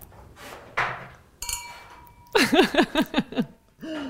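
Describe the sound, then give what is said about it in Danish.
A single bright clink of champagne glasses touching in a toast at the start of a meal, leaving a clear ringing tone that hangs for about a second before laughter and voices break in. “Må jeg ikke starte med at skåle med dig lige til?”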